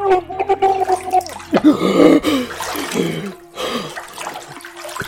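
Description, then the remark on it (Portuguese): Water splashes and gurgles as a head is plunged in and out of it several times in a dramatized story, with bursts of churning, bubbling water over a few seconds. “E Naomi começou a socar a cabeça de Cardemo dentro e fora da água enquanto respondia ensandecida.”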